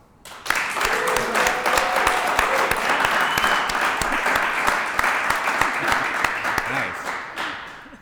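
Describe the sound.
A full round of applause from a crowd welcoming a guest: dense, steady clapping that starts abruptly, holds loud for about seven seconds, then tapers off, with a few cheers and voices mixed in.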